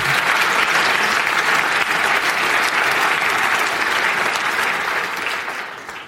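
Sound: audience applause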